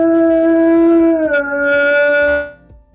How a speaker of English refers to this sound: So a, a an ambulance ambulances came by and my dog just started howling.